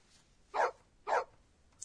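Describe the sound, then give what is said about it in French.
A dog barks twice in a steady rhythm, two sharp, fairly loud barks about half a second apart, with no voices and only faint background between them. “Oh, un chien.”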